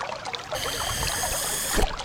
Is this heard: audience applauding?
no